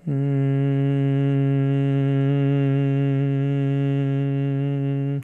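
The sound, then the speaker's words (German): A steady, sustained hum from a single voice made while exhaling during a breathing exercise, held evenly for about five seconds on one low pitch with a rich buzzing tone, fairly loud, ending as the breath runs out. “Und atme aus, erzeuge den Summklang.”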